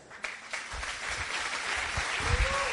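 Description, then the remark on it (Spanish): A crowd at a business meeting claps steadily for the invited guests, a dense wash of many hands that swells slightly toward the end, with a few whoops or voices mixed in. “Démosle un aplauso.”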